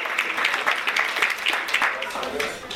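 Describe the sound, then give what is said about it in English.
A crowd applauds steadily, many hands clapping in a dense, continuous patter that holds at an even level for a few seconds, with some murmuring mixed in, as an audience volunteer comes up to the stage to join the presenter for a demonstration. “Give him a round of applause as he comes up to the stage to join me for this demonstration.”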